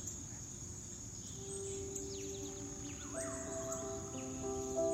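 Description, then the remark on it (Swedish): A steady, dense chorus of crickets chirps continuously, filling the quiet night air over a village, with a few faint bird-like calls rising above the insect drone. “Syrsorna vaggar invånarna till sömns med sitt brus.”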